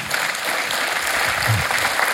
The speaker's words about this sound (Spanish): Un aplauso para el que prometió eso.